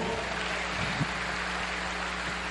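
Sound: audience applause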